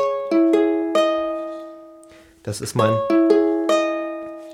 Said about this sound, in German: mein Ohrenblicke-Logo. Es ist übrigens auf der Ukulele entwickelt.